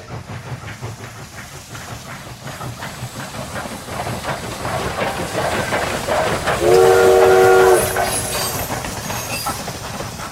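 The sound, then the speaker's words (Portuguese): A train sound effect used on radio: a train rumbles steadily along the rails with a rhythmic clatter of wheels, growing slightly louder, and a short whistle blast sounds near the end. No one speaks. “Por dedução, você sabe que aqui dentro do estúdio não tem cavalo, trem, avião, nem mosca.”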